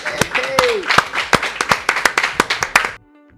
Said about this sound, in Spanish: Aplausos para